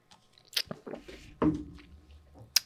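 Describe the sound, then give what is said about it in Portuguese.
Quiet mouth noises of someone sipping water: a few wet slurping clicks, a soft swallow, then a sharp lip smack at the end, with no talking. “Eu tô feliz com esse gole d'água.”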